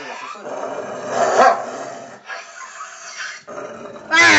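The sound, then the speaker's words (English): A person's voice mimics a snarling, barking dog in a few rough bursts, growing louder toward the end, with breathy pauses between the outbursts. “Crazy, stupid dog.”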